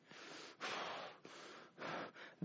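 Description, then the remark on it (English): Heavy, forceful breathing portraying Haman breathing hard in indignation, about four loud harsh breaths in and out in a steady rhythm, agitated-sounding, with no talking. “You can almost see Haman's chest go up and down as he starts breathing hard.”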